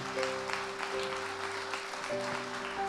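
A church audience claps steadily for the Lord in a dense, continuous wash of applause, while sustained organ or keyboard chords hold underneath.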